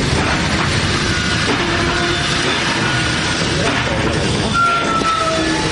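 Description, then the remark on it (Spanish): At night, a train on the Trans-Siberian railway rumbles through a tunnel with a steady, loud, enclosed roar, and a thin high squeal of wheels or brakes rises near the end as it stops at a station. “De noche el ferrocarril atraviesa un túnel y se detiene en una estación.”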